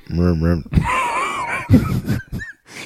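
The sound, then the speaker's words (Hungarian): A voice imitates a monster's growl from a 2.5D video game: two short tonal groans, then a longer raspy, wheezing snarl with strained gurgling breaths, fairly loud. “Azok a morgások, mint a hmm. szekrénybe zárt macska”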